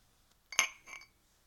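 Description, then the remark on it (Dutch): Two glasses clink together in a toast at the end of the year 2020, a bright ringing tap followed by a softer second touch, clear against an otherwise quiet background. “Proost.”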